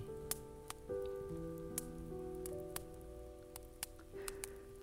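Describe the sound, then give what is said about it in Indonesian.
Scattered raindrops tap sharply and irregularly over a soft, steady musical drone. The rain sounds quiet, with no voices. “Sebelum hujan turun”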